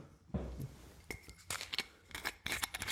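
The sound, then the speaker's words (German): A screw cap cracks open on a wine bottle with a series of sharp clicks and crackles, followed by brief glassy clinks and splashy bursts as wine is poured, with no talking. “ich mache dafür ganz kurz das Geräusch von Wein einschenken.”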